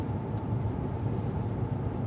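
Steady low rumble of a car driving through the lonely Brandenburg countryside in Germany, heard from inside the cabin, with constant road and engine noise filling the low end and no pauses for the whole stretch.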